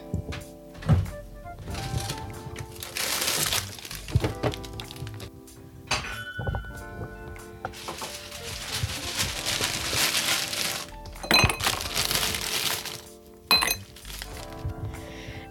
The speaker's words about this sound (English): So just fill a glass with ice. It can be as tall a drink as you want.